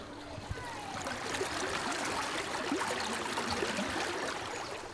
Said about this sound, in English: Sound of the river forcing its way over the steps.